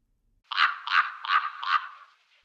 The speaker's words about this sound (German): Na, ich denke, das war ziemlich eindeutig. Ein Rabe hört sich so an.